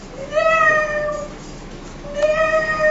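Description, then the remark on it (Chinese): A tabby cat (狸猫), running out from under the county magistrate's legs, meows twice, each call drawn out and high-pitched, with a short pause between them. No one speaks during the meows. “就在这个时间，从县长腿底下跑过来个狸猫，狸猫叫唤的。”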